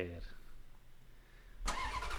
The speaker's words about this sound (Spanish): sin más, arrancamos motores.